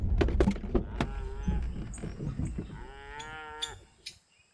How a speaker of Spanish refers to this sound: Ahora las vacas están al fondo de ese corredor plano, ¿Las ves allí junto a los cabestros? Sí. ¿Qué edad tienen esas vacas? Son eralas. Tienen dos años.